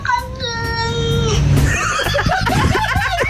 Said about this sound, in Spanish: El gato que dice la cagué.